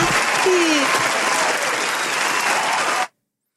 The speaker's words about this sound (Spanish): ¿Dónde está el aplauso?